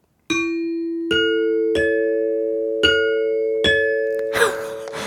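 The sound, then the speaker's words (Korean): A bright ding-dong-dang chime plays five ringing bell-like notes in an unhurried melody. Each tone sustains into the next, loud and close, and a short noisy burst follows at the end. “아 딩동 댕동댕 드렸습니다.”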